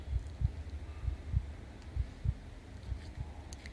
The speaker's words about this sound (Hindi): जैसे जैसे पेड़ नज़दीक आ रहा था वैसे वैसे इनकी दिल की धड़कनें भी बढ़ती जा रही थी